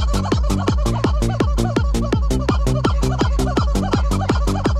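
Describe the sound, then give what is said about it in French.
A rubber chicken toy, grabbed and shaken by a horse at play, squawks over and over in a fast, steady rhythm, each squeak loud and harsh with a dropping pitch, about three per second, with no voices. “Là c'est un cheval qui joue. Non, je déconne pas, le cheval a chopé le poulet, il le secoue pour faire du bruit.”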